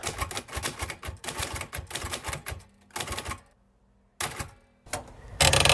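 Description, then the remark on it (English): Rapid mechanical keystrokes on an old Royal typewriter clatter in quick bursts, with a few short pauses and a loud carriage-return-like rush near the end. Clear, no voices. “I actually bought this old Royal typewriter.”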